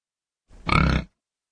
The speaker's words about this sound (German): Da erklang es wieder. Ein deutliches, leicht röchelndes Grunzen.